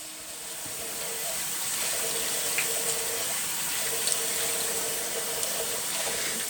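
Tap water runs in a steady, hissing stream into a sink, with faint splashes and small shifts as hands move through the flow as a man does ritual washing for morning prayer in an apartment at Carl Berners at 6:19, before sunrise. No one speaks.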